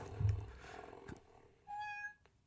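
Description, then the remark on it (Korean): A single short, steady meow-like cry from a Chinese-made cat rings out near the end, clear and fairly loud, with a faintly electronic tone, following some low thumps and rustling. Nobody speaks. “갑자기 고양이가 울어가지고요.”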